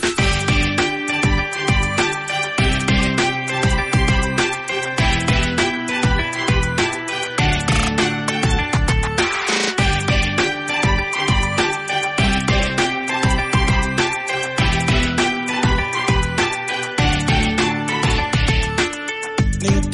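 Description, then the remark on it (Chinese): A pop song, the show's 2020 promotional song, plays loud and steady, with a full-band arrangement driven by a regular rhythmic beat and sustained melodic chords; no singing or talking comes through. “听一首好听的歌吧。”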